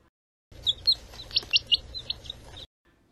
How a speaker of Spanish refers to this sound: corresponde al timbre de un pollito